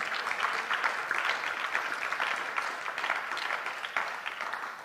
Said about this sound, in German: Hey, was für eine Worship-Band. Hey, lass uns wirklich der Worship-Band einen Applaus geben.